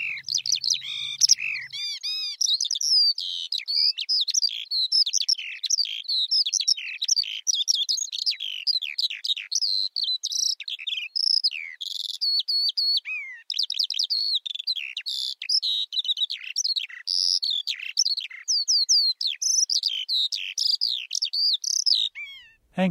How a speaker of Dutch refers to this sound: Mijn beltoon. Ik heb de fout gemaakt, of fout is net hoe je het bekijkt, om van de, eh, die, deze veldleverikopname mijn beltoon te maken.